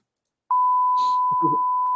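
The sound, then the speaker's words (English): A steady, loud censor bleep tone from a beep button starts abruptly and holds for about a second and a half, with muffled fragments of a voice faintly audible beneath it. “I got my beep button ready.”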